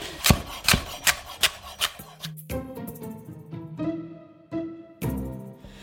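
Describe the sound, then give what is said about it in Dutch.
A large knife chops firmly through a celeriac on a board, cutting it into roughly even cubes: about five quick, sharp strikes in a steady rhythm, followed by quieter scraping and rasping cutting sounds. “ik snij eh, de knolselderij in een beetje gelijke blokken.”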